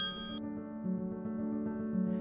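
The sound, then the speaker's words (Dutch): A mobile phone's short bright electronic ding rings out at the start, its high tone fading within half a second, followed by a sustained low tonal hum for the rest of the moment. “Dat is de, de moderne tijd die ons even inhaalt. ik heb dat ding, had dat ding natuurlijk uit moeten zetten.”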